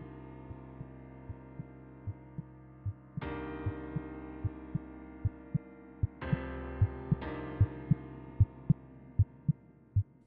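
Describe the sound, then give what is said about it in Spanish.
A steady, loud heartbeat thumps at a quick, even pace throughout, layered over sustained droning musical tones that swell in with new chords partway through; no one speaks. “Estaba sudando y los golpes no eran más que mis latidos, tan fuertes que parecían mover la cama”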